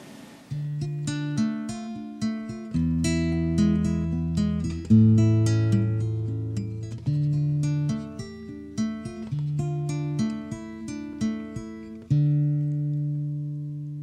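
A solo guitar plays an instrumental passage of plucked, ringing notes over sustained low bass tones, moving at a steady, unhurried pace with no voices.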